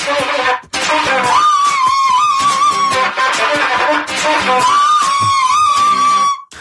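A bright, wavering high melody from two flutes over a busy, plucked harpsichord accompaniment, playing loud for several seconds after a brief pause near the start.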